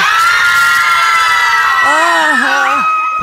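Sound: children shouting and cheering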